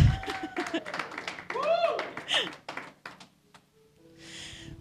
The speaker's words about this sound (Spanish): Vamos a darle un aplauso al Señor y empezamos.